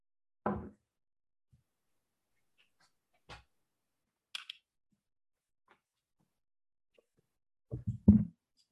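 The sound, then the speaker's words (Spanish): Scattered knocks and thumps as someone fixes a noisy door, with long quiet gaps between them and a quick cluster of heavier bangs at the end; no one speaks. “Yo voy a aprovechar de arreglar una puerta que está metiendo boche.”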